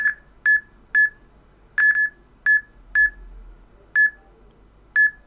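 An app gives a series of short, high-pitched electronic beeps, speeding up as it locates the expiry date on a bottle held up to the camera: about nine in five seconds at slightly uneven intervals, each a clear tone standing out over faint background hiss, with no talking.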